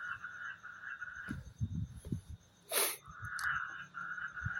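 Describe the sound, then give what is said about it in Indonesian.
A frog croaks in a series of low, rapid pulses over a steady high-pitched chorus, broken once by a brief loud rasping burst. “nih kodok anjing”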